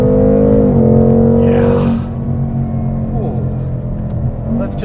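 A Mustang Mach 1, a car of about 3,900 pounds, revs loudly on a test drive, its deep droning pitch climbing before a sharp whoosh and a gear change, then pulling steadily onward with a throaty rumble.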